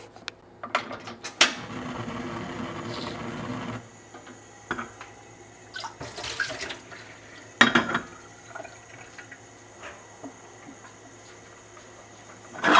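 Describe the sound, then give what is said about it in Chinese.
Freshly boiled hot water is poured into a pot for cooking Italian pasta, a steady, rushing stream for a couple of seconds, followed by scattered metallic clinks and clicks as the stove is turned on. No one speaks. “把你刚煮好的热水呢，把它加进来，我们开火。”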